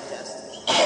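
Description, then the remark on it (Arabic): A single abrupt sneeze bursts out near the end, loud and breathy, after a quiet moment of low background noise. “طيب يرحمك الله”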